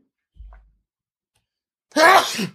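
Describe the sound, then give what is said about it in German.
A single loud sneeze bursts out near the end, sharp and breathy with a voiced edge, after a soft low thump and a stretch of near silence. “Gesundheit. Gesundheit.”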